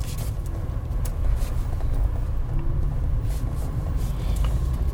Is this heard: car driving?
yes